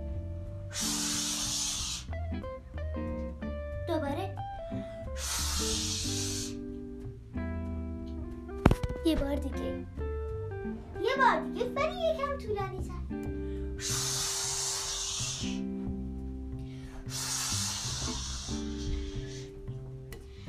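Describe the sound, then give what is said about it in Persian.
A voice imitates rain with several long, breathy shushing hisses, steady and fairly loud, separated by pauses where people talk briefly, while soft sustained musical tones play underneath. “بله من سعی میکردم صدای بارون رو در بیارم حالا بارون آروم چک چک چک چک”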